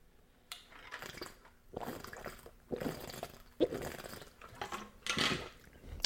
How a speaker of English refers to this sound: I was just dumb enough to leave the fucking spoon in there. So every time I take a sip, it sounds like a spoon's about to eat me.